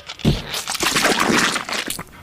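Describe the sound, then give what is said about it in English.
Juice splashes and gurgles into a glass pitcher, a steady wet pour lasting about two seconds with crunchy, sputtering bursts mixed in. No one speaks. “I'm gonna juice. This thing is fucking rude. Well, no, just, just catch as much as you can in that glass pitcher there.”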